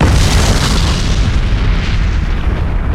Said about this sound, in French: On le sent passer, ouais. La première onde de choc fait ça. Ensuite, c'est le roulement du souffle qui arrive au loin.